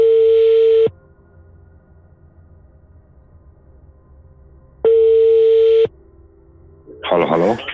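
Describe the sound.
A telephone ringback tone sounds twice while calling a listener, each a steady one-second beep separated by about four seconds of quiet, followed by a voice starting to speak as the call connects.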